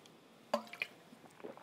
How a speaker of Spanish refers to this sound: Tú puedes tomar agua. Por ejemplo, voy a tomar agua yo aquí de mi, de mi, de mi